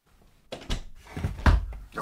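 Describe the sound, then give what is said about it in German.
Several dull thuds and knocks in quick irregular succession as someone stumbles against a large suitcase standing in the middle of a doorway, with the loudest bump near the end. “Da habe ich doch meinen großen lästigen Koffer mitten in die Tür gestellt.”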